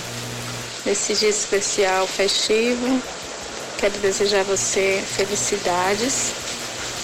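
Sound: rain falling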